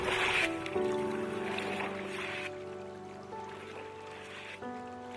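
Small boats drifting with the current on river water at a fishing hamlet, with a steady droning hum and a wash of water noise that stays fairly loud throughout, shifting slightly in pitch now and then. No one speaks.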